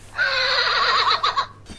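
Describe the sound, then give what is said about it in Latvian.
A single horse whinny rings out loudly, a wavering, trembling call lasting over a second before trailing off into quiet; a Latvian-breed horse. “Pat īziņa, kā zirga zviedziens.”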